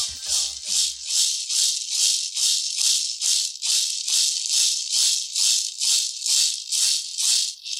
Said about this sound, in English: And when you hear or see the gourd rattles here in our culture, you automatically think of the uh, the Yaqui deer dancers or the matachinas using them.